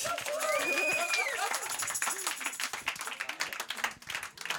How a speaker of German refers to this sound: an der Stelle ein riesen Dankeschön an alle, auch ans Publikum. Ihr dürft euch mal selber applaudieren.